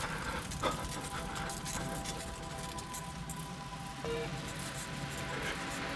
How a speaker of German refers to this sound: Scheiße, da ist der LKW schon